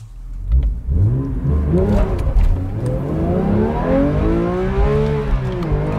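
A Porsche 911 GT3 Touring with a manual gearbox, being test-driven, revs hard and steadily, its pitch sweeping upward through rising harmonics with a loud, continuous mechanical roar and no voices.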